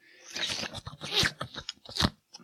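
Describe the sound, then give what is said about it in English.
Someone eats printed paper, crunching and chewing with a rapid series of crisp, irregular crackles and tearing bites over a couple of seconds, heard alone without talk. “You should not eat this much paper.”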